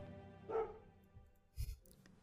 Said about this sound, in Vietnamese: Đêm mùng 3 Mấy con chó hàng xóm càng làm dữ hơn đêm trước Riêng con phèn nhà bà Mười Lúc nào cũng ngồi ở góc me Ngóng mỏ vào nhà mà tru tréo